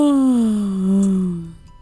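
A long, exaggerated vocal yawn demonstrated for children after a count of one, two, three, as the first step of pretending to sleep: a voiced groan that starts high, slides down in pitch and trails off breathily over nearly two seconds, loud and alone with no talking.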